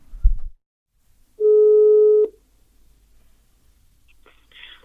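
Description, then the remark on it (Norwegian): A single steady telephone ringing tone, heard as a phone call is placed, sounds for about a second, clear and fairly loud, with a brief soft thump before it and faint rustling afterward. “Skal vi ringe Kan ikke du ringe han, da? Vi kan ringe han, da.”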